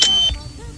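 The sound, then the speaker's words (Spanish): A single short, high-pitched electronic phone notification beep sounds at midnight, cutting off after a brief moment and leaving a soft low thump and quiet background hum. “Sí, bueno, ahí ya el rojito va a estar eh, dando notificaciones.”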